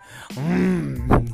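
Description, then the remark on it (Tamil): A voice mimics a person snoring on a train sleeper berth at night: a drawn-out, throaty groan that wavers in pitch, followed by a short rougher snort, fairly loud with no words spoken. “சங்கீத ஸ்வரங்கள் அப்படின்னு மூணு பேரும் மாறி மாறி மாறி மாறி மாறி மாறி கொரட்ட கொரட்ட அது என்னது கொரட்ட கான்செர்ட் நடத்துகிறேன் எனக்கு இவன் ஆஃப் ஆவான் அவன் ஆன் ஆவான் அவன் ஆன் ஆவான் இவன் ஆஃப் ஆவான் சில டைம் ரெண்டு பேரும் கோரஸ் வேறு போடுறாங்க”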